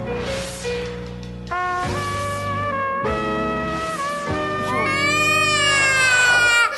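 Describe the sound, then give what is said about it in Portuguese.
Someone fakes an exaggerated cry, letting out several loud, drawn-out wailing sobs that waver in pitch, with no other talking. “Engole o choro.”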